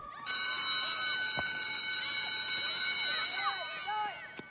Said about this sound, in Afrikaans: Die skoolklok lui om die einde van pouse aan te kondig en die kinders gaan almal terug na hulle klaskamers toe.